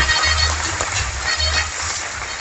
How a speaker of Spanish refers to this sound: ¿Cuántos de ustedes creen que Ricardo se merece otro aplauso? Excelente trabajo. Muy bien.